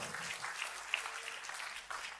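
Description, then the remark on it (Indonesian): Sustained crowd applause, a dense steady wash of many hands clapping at moderate volume with no voices on top, holding evenly throughout. “Tepuk tangannya pula yang paling meriah buat”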